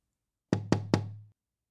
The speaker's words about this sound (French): Le loup arriva le premier à la maison de la grand-mère. Il frappe à la porte.